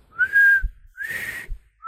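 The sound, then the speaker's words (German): A person whistles two drawn-out, high-pitched notes with a short gap between them, each rising slightly then holding steady, imitating the whistling call of a tapir; a third note begins at the end. No talking. “Tapire pfeifen ja so, guck mal, immer so, mal immer so ein.”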